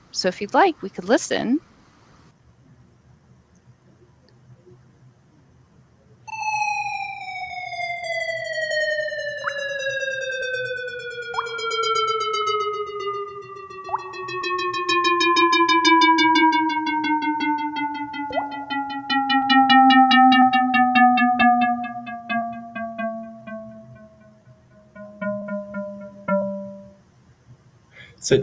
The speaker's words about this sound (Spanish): el equipo decidió asignar un pequeño sonido de una gota cada vez que se encuentra con el pico más alto. Hay tres puntos de datos que indican agua y al punto central se le asignó el sonido de una gota de agua.